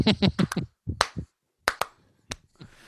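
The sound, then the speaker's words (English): A handful of sharp hand claps in an uneven, loose rhythm, a quick cluster at first and then more scattered single claps with short pauses between, fairly loud and with no talking. “we'll have to start with the claps.”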